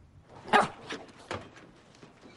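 A dog barks three times in quick, uneven succession, the first bark loudest and sharpest, the later ones a little softer, with a low background murmur and no voices.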